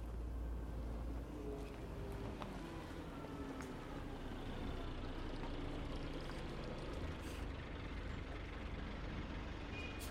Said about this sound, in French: et ensuite, bien évidemment, le bus. Un bus direction le Nord-Vietnam. Allez, en route, c'est parti.